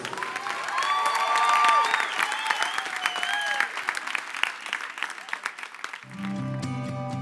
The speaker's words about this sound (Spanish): que está vivo, que se quedó para estar con nosotros todos los días hasta el fin del mundo, le damos fuerte el aplauso.